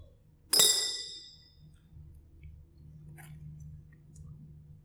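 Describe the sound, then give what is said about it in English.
A rock drops into a glass jar holding about 150 rocks with one bright, ringing clink that fades over about a second, followed later by a faint small rattle against a low background hum. “Now, there's a lot of rocks in here. Maybe 150 rocks.”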